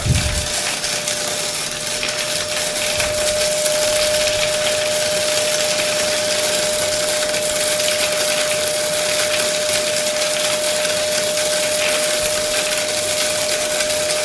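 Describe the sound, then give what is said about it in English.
A cocoa bean cracker and winnower runs steadily, breaking roasted cocoa beans apart and removing the husks with vacuum pressure to leave the nibs. It makes a loud, dense mechanical roar with a constant high-pitched tone droning through it and an airy, suction-like hiss throughout, without pauses. “So once they're roasted, we have this machine over here, which is a cracker and winnower.”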